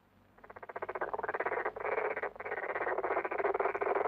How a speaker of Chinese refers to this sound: 青蛙们在池塘里唱歌